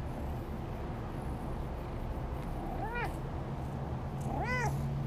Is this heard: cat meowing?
yes